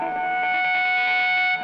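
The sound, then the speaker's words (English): Loud, sustained audio feedback: several steady, piercing tones ring together without wavering over a dense, noisy wash, holding at full level before cutting off abruptly at the end. No voices. “Wow, that uh, feedback was awesome.”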